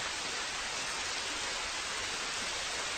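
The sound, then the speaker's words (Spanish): Steady rain falling at night, heard as a continuous, even hiss without distinct drops or changes in intensity. No voices or other sounds break through it. “Llueve, es de noche.”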